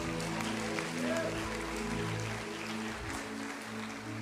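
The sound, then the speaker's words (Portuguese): An audience claps steadily in a dense, continuous patter, mixed with sustained voices or music humming underneath, for about four seconds at a fairly even loudness. “Aplaude, ele aplaude.”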